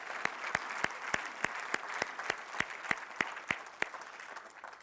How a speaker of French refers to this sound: Euh, je pense que ce matin, on doit leur donner une bonne main d'applaudissement pour euh, tout le travail de nos bénévoles.